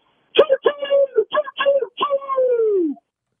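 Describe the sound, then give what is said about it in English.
A voice imitates a train whistle: five quick, steady hoots followed by one long, drawn-out blast that slowly sags in pitch as it fades. “Still got the train whistle.”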